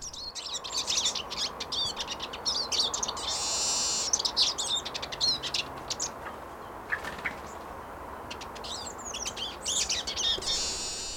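Eurasian siskins, males and females, call busily as they flit from one spruce treetop to another in a spruce forest, a steady stream of high twittering notes and chirps from several birds overlapping, with no voices and a soft woodland background.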